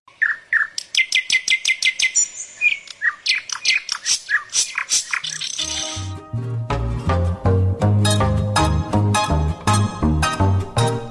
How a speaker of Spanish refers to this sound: Acompañando el canto de las aves